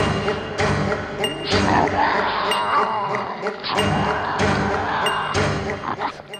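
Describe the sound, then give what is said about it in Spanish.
Harsh, raspy growls and screeching snarls from a Tasmanian devil come in repeated loud, continuous bursts, with occasional thuds beneath them. “Quizá fue por mis reacciones y gruñidos.”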